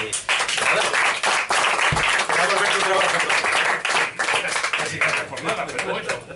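An audience on the show Blanco Fetén breaks into applause to thank someone, a dense, steady wash of many hands clapping that stays loud for about six seconds before thinning slightly at the end.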